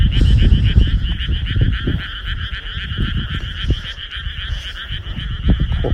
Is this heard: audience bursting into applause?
no